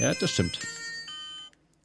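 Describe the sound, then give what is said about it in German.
A mobile phone with no internet connection rings with a steady, high electronic tone that runs under a short burst of speech and carries on alone for a moment before cutting off. “Und das ist mein Handy? Das ist okay.”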